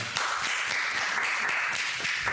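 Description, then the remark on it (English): A crowd applauding in a steady, dense wash of many hands clapping at once, loud and sustained with no voices standing out. “I want to give a round of applause to the audience today.”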